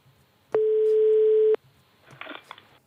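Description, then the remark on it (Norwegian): A single one-second burst of a phone's ringback tone, a steady mid-pitched hum heard while an outgoing call to Finland rings on the NRK P3 programme Ordfag, followed by faint rustling handling noise on a quiet line. “Da ringer vi til Finland.”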